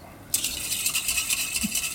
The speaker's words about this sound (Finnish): niin se laitetaan nyt sinne ja tämän jälkeen nyt sitten tähän samalla lailla, niin sitten tota sekoitetaan toi jauho.